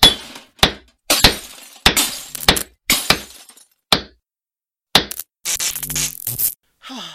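A series of sharp, loud smashing impacts, roughly ten in irregular succession, as a hammer smashes electronic devices, breaking glass and hard casings, with shattering debris and a longer crunching clatter near the end.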